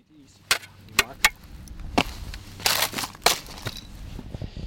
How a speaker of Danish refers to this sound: Jamen, øh, som man kan høre, så er der jo lidt... Øh, har vi is i marken, og vi går lige ud for at prøve at grave noget op, så du kan øh, vise, hvad, hvad, hvor langt frosten går ned i øh, jorden, og hvordan det ser ud nedenunder.